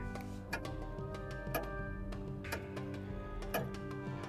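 A wall clock that belonged to a man's father ticks steadily, one crisp tick per second, four in all, over a constant low electrical hum in a room.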